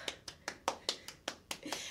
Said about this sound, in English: Yes, clap it up.